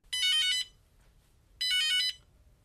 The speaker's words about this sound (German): Oh, Telefon.